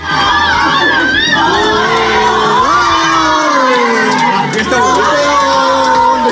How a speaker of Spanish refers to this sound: Así celebraban las chicas la medalla de oro de las españolas en la rutina técnica de natación sincronizada